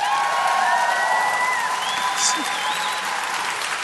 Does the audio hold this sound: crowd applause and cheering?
yes